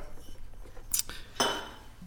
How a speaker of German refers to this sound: Und ja, ähm, vorher vor müssen wir aber noch anstoßen. Ja, stimmt. In diesem Sinne und so, weißt du?